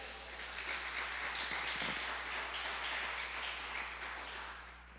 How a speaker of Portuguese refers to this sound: Dá mais um aplauso a ele aí, vai.